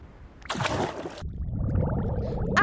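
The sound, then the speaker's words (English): A sudden airy whoosh gives way to a steady stream of gurgling bubbles that keep popping and burbling to the end, with no one speaking. “Uh oh! Bubbles!”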